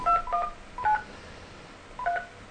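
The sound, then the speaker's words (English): Touch-tone dialing on a traditional telephone to call a guest: a handful of short, clear beeping tones, in a quick pair, then one more, a pause, and a final tone, with no voices. “Let's go to the traditional telephone then.”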